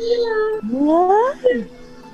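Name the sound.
kitten meowing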